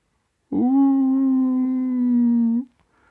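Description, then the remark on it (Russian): One long, loud howl holds a steady, droning pitch for about two seconds, then cuts off with a slight upward lift at the end; nothing else is heard around it. “Словно лес следит за ними, затаив дыхание, и тут же, недалеко, послышался вой.”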